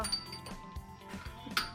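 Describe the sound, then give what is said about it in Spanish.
Glasses clink together in a final toast in a studio, a few light, ringing taps scattered over a couple of seconds, fairly quiet, with a faint murmur of voices in the background. “un último brindis con toda la gente que nos está escuchando por Emprender”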